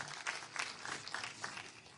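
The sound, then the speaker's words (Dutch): Applause from a group, a dense patter of many hands clapping at once, steady and moderately loud for the whole stretch with no voices on top. “Dat is wel een applaus waard, dacht ik.”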